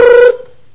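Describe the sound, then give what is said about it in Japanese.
A single short electronic telephone ring, a steady buzzing tone lasting about a third of a second, loud, then cutting off into quiet. “プルルル電話が鳴ったの。”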